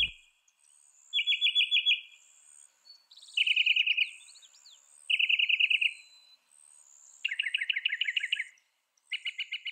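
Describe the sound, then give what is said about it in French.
A mockingbird sings alone, clear, delivering bursts of rapidly repeated notes, each note or phrase repeated three to five times with tiny breaths between before switching to a new pattern, with brief pauses between bursts. “C'est comme ça que les scientifiques ont compris que cette espèce-là répète généralement chaque note ou groupe de notes trois à cinq fois en insérant de minuscules respirations entre chacune d'elles avant de passer à quelque chose de nouveau.”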